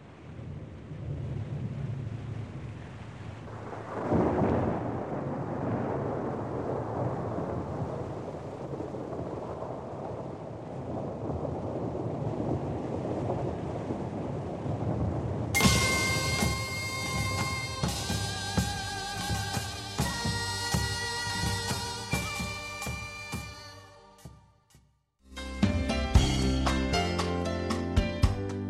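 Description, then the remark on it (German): A traditional Korean music piece opens with a steady wash of rain and rumbling thunder, then bright plucked and sustained instrumental tones enter, pause briefly, and resume loudly near the end. “hören wir noch etwas traditionelle koreanische Musik. Seulgidong spielt das Stück Sonagi, der Regenschauer.”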